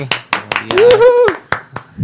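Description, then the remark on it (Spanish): Scattered applause welcoming a newly arrived band: about eight sharp, separate hand claps in an uneven rhythm, with a voice calling out briefly over the middle of the clapping. “Un fuerte aplauso.”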